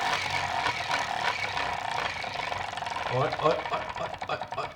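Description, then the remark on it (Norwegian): A spinning prize wheel, started at number six, clatters with rapid, steady clicks that gradually slow toward the end and land on 18, fairly loud, with a voice briefly audible underneath. “Jeg begynner på tallet seks, og så skal vi se hvor det ender.”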